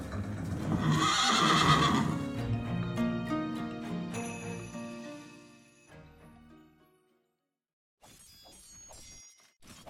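A horse lets out a loud, shrill whinny that wavers and trails off, followed by a brief silence and then a short burst of clattering hoofbeats.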